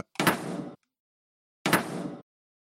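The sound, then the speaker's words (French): A home oven door shuts twice, recorded and played back, each a short clattering thud with a metallic rattle, separated by roughly a second of silence. No one speaks. “fermez donc la porte de votre four pour que nous l'enregistrions.”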